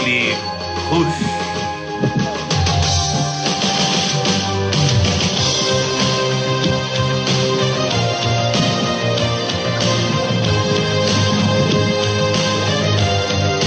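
A loud, full-band musical jingle, the show's segment curtain for the Hipo show, plays steadily with dense instrumentation, sustained tones and rhythmic hits, continuous for its whole length with no pauses.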